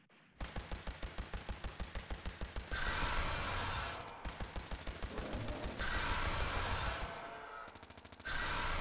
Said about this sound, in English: even as the sounds outside reached a crescendo of gunfire, screeching, and then a final, definitive silence, before the doors nearly buckled inwards from the crush from the outside.